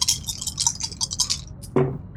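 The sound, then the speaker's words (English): A rapid rattle of small hard clicks, three dice tumbling and clattering across a surface for about a second and a half in an intelligence and investigation roll, then a brief vocal exclamation as they settle. “well, I'll roll roll me three dice.”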